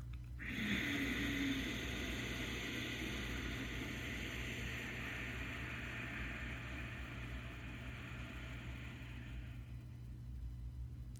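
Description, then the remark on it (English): During a breathing exercise, after an inhale through the nose, a long, steady exhale is pushed through the throat, making a rough, hissing rush that lasts about nine seconds before trailing off, with a low hum underneath and no talking. “Inhale into the low belly, inhale into the chest, inhale above the collarbones, and then exhale with the sound.”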